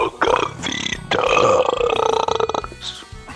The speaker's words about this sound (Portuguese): Você diria que ele foi o campeão do nosso campeonato, do, do, nosso querido campeonato de arrotos?